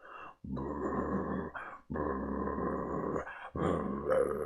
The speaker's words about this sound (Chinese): 隔着笼子，黑猫盯这个回声鸭，低吼不断，口中发出阵阵的怪叫啊！